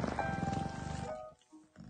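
A cat purrs in a low, steady, pulsing rumble for just over a second, then the sound drops away, leaving faint quiet noise.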